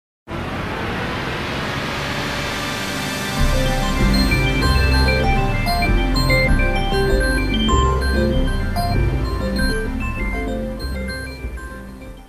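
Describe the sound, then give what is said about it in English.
The long electronic startup sound from the Microsoft Windows NT 5.0 beta (later Windows 2000), designed by Matthew Felton: layered synthesized tones swell in, joined by a deep sustained bass after a few seconds, with shimmering high notes before gradually fading out. No one speaks. “The beta included another startup sound designed by Matthew Felton.”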